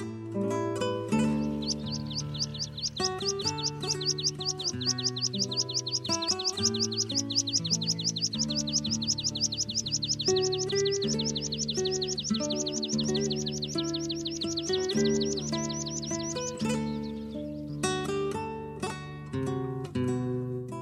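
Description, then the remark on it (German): A meadow pipit sings a long run of thin, high, rapidly repeated notes lasting about fifteen seconds, with a steady musical accompaniment playing underneath and a few sparse chirps afterward. “Das war der Wiesenpieper.”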